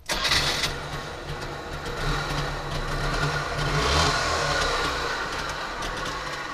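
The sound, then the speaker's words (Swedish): A Trabant car engine starts in a hall in Zwickau with a quick burst, then settles into a rough, buzzy running note that revs up around the middle before dropping back, loud and steady throughout with no talking. “Vi hörde ljudet av en startande Trabant som jag fick ratta i hallen.”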